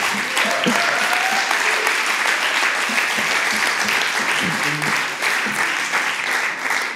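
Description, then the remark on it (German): Loud, sustained applause from a large audience as a man is called to come forward, a dense steady roar of clapping with a few faint voices and whoops mixed underneath. “Dosi, du darfst nach vorne kommen und wir geben ihm mal einen Riesenapplaus.”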